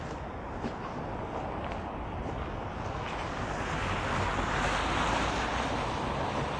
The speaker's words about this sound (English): Can you hear the splash of water as that car drives through? I was taking shelter there just briefly under the uh, airline drive ramp that turns into Tulane Avenue.